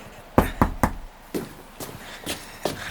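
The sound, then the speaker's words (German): Three quick, sharp knocks on a door, followed by a few softer, spaced-out thumps over an otherwise quiet background, with no voices. “Klopfe einfach an die Tür und ich gehe zurück ins Panoramazimmer.”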